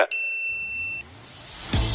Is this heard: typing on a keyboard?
no